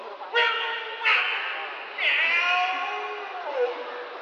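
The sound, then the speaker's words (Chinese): A person imitates a cat, giving a few drawn-out, nasal meow-like calls in quick succession, each starting abruptly and trailing off with a slight downward bend in pitch. “你刚是喵吗？你是狗哎，喵什么喵啊？”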